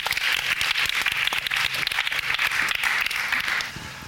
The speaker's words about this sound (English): Give rolls a big round of applause.